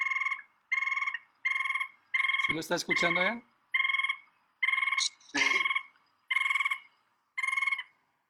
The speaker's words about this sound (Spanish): Esta especie. Sí, sí lo estoy escuchando. Le llaman tapaculo de tatamá.